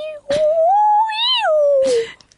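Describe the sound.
A person's voice imitates humpback whale song: one drawn-out, wavering tone that climbs, holds, then slides back down, framed by breathy bursts at the start and end. It is fairly loud.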